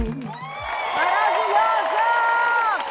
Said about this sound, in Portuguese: Gritaria Obrigada. e muitos aplausos.